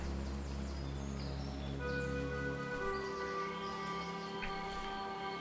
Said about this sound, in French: Les yeux fermés, écoutant à nouveau les feuilles bruisser dans le vent, Paul repensait aux indications de son ami.